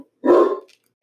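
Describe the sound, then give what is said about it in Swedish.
A single deep, loud bark from a large, deaf Grand Noir dog barking at the mail carrier, heard in a home kitchen, abrupt, followed by a brief quiet pause with a faint trailing sound. “Ens stora Grand Noir, som till och med är döv, kan få för sig att eh, skälla på brevbäraren.”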